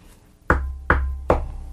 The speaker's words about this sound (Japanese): 外の、あの、カーテンの向こうの窓をノックするんですよ。うん、3階なんですけどね。